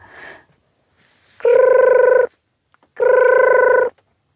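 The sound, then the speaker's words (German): A mobile phone rings twice in loud, buzzing electronic bursts from somewhere in the sand. Each burst lasts under a second, with a short pause between them. No one speaks. “Plötzlich klingelte es irgendwo im Sand.”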